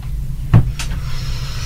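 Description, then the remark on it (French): A door knocks once, followed by a sharper rattle, over a steady low rumble of blowing wind; the door keeps banging in the wind. The sounds are brief, and no one speaks. “Euh, alors, on est désolé, si vous entendez du bruit parce qu'il y a du vent, ça souffle, la porte qui n'arrête pas.”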